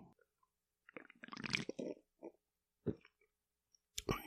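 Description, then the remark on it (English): Quiet sipping and slurping as a drink is tasted live on air: a longer wet slurp followed by a few short gulping, smacking mouth sounds with brief pauses between them. “All right, let's take a little sip here.”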